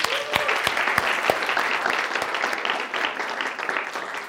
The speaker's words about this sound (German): Dein erstes Mal, dass du heute Schlagzeug hier im Gottesdienst gespielt hast. Ich finde das ist ein großer Applaus erstmal.